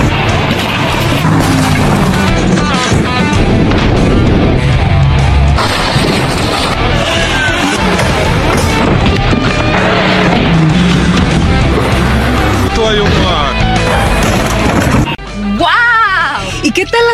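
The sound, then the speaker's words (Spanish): Loud, sustained car engines of Hollywood stunt drivers' cars roar and rev throughout, with squealing, skidding tires during stunt driving and voices mixed into the dense, continuous din. “¿Y qué tal estos dobles de Hollywood con estos autos?”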